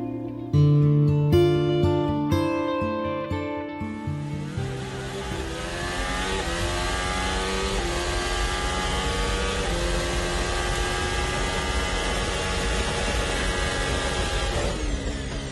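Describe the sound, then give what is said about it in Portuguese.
High-pitched Formula 1 race car engines rev in sharp bursts for the first few seconds, then blend into a loud, sustained roar of several cars on the track, with rising and falling whines continuing throughout. No one speaks. “quem está em casa assistindo na TV, pode parecer que uma corrida de Fórmula 1 se resume a carros na pista, barulho de motor e ponto.”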